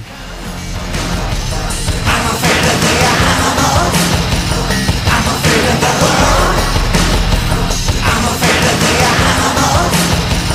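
A loud, dense rock song, an early version from the soundtrack of the film Showgirls, plays throughout, with heavy drums, crashing cymbals and distorted guitars under a singing voice, the full band steady from start to finish.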